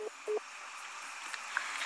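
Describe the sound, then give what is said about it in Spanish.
A phone line drops: two short electronic tone beeps sound at the start, then only a faint line hiss remains, with no voices present. “se cortó la comunicación.”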